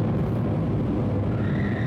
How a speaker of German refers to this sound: Nee, das war ein Gewitter